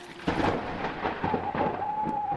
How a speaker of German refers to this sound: Ich höre Blitz und Donner.